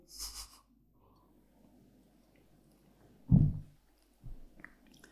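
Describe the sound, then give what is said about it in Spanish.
Someone takes a quick sip of a drink, a brief airy slurp followed by a couple of soft, low bumps and mouth sounds, with no talking. “Voy a darle un sorbo al tema.”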